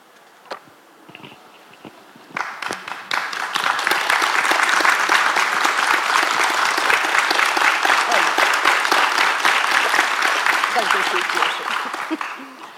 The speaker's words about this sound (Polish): Bardzo dziękuję. Przekażę, powiem Marysi, że Państwo klaszczecie dla niej. To dla Marysi było przecież.